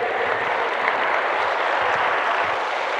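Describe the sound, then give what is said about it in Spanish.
An audience claps together in a dense, steady burst of applause, a continuous crackle of many hands at an even loudness for a few seconds, with no voices standing out. “Sí, dense un aplauso.”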